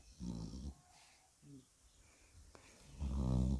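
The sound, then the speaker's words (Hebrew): A pet named Manju snores loudly in two drawn-out, rumbling breaths, one at the start and one at the end, with a quiet pause and a faint snuffle between them. “מנג'ו במופע נחירות שלא מבייש אף מלאך שיכור.”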